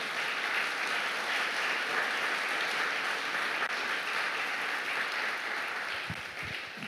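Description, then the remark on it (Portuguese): An audience applauds Jesus after a prayer, many hands clapping together in a dense, sustained wash of sound that stays loud throughout and eases slightly near the end. “Dá uma salva de palmas a Jesus no seu lugar.”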